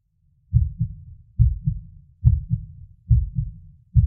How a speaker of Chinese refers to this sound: 因为坐在那里，如果很安静的话，就能听见咚咚咚咚咚的心跳声，你知道吗？